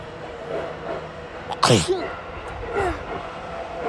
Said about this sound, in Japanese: くしゃみが出そう